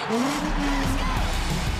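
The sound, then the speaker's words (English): Loud race car engines roar and rev, their pitch climbing and wavering over a steady rumbling drone, with a faint tire-squeal edge throughout. “Drivers, start your engines.”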